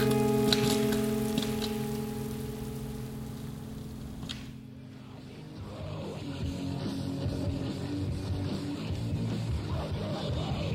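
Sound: rain falling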